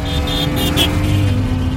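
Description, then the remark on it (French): A car engine revs and accelerates with a loud, steady low rumble, its pitch shifting slightly as it pushes forward through the brief stretch. “inquiétez pas, je mets le turbo.”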